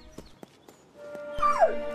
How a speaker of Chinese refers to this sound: 雷达怎么了？也许他察觉到危险了。 嗯别犯傻了，它只是只狗。 一只救援犬。